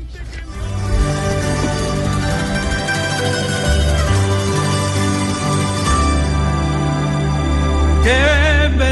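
A recorded song plays: a loud, full orchestral accompaniment under a sustained, operatic-style singing voice, ending on a held note with wide vibrato. It sounds close and continuous throughout.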